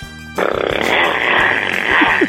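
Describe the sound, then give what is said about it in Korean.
A voice imitates a revving motorcycle engine for a sound-imitation contest segment, with a buzzy, sustained rasp that starts abruptly, holds steady and loud for about two seconds, then lifts briefly near the end. “오토바이 민주지간 오토바이 들어볼게요”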